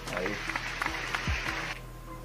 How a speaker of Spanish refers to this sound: Aquí, aquí, hay aplauso, aquí hay aplauso, mira,